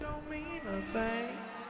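A rock song kicks in, with sustained, gliding melodic tones over a steady full-band backdrop, loud, and no talking over it.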